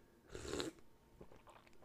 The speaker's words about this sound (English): I woke up a little bit this late this morning, but I have my coffee. I have my coffee and I have it to sip.